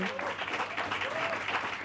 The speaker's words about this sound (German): Und ich denke, ich spreche für alle, wenn ich sage, dass die Menschen, dass wir einen kräftigen Applaus an dieser Stelle verdient haben, dass wir 500 Tage